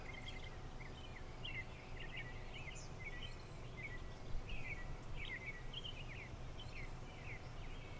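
Birds chirp and twitter softly, a scattering of short, high calls repeating throughout, over a steady low rumble of wind.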